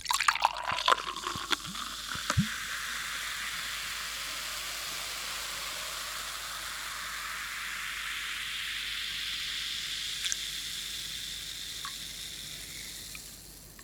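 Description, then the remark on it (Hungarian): Carbon dioxide fizzing in a freshly poured spritzer: a steady, bright crackling hiss with a few clinks and splashes at the start, then continuous fine popping that slowly fades. No one speaks. “Gábor szívét az melengeti meg, amikor a frissen kitöltött fröccs tetején serceg a széndiokszid.”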